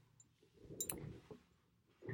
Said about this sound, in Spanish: Era el teclado, efectivamente era el teclado, efectivamente